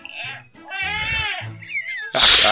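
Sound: baby crying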